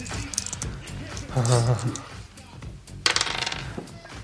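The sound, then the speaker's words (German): Dice clatter across a hard table in two short bursts of rattling clicks, rolled for a deception check in a tabletop role-playing game and coming up 12, with a voice murmuring faintly in the background. “Würfel mal auf Täuschung um, boah, 40 erleichtert.”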